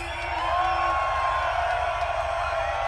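A large festival crowd at Tomorrowland cheers and whoops in a dense, sustained roar, loud, with a steady thumping bass beat pulsing underneath throughout.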